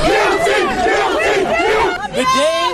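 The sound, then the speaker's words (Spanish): A large crowd cheers and shouts in the street, celebrating the guilty verdict against former police officer Kim Potter; many voices yell together in a loud, sustained, excited roar with overlapping whoops. “En la calle hay muchos que celebraban.”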